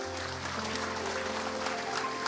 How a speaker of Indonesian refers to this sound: Tepuk tangan buat Tuhan Yesus.